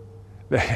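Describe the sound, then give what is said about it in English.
After a brief quiet stretch with a low background hum, a dog lets out a single loud, harsh bark. “you may be able to hear there is a dog ferociously barking right now.”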